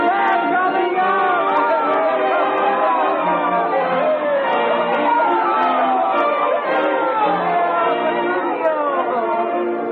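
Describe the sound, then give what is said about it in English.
A dense crowd chattering steadily outside a church at a wedding, on the church steps, many overlapping voices blending into a loud, continuous murmur with no single speaker standing out. “On the steps of the church, Petruchio stops with his bride on his arm and bows to the crowd.”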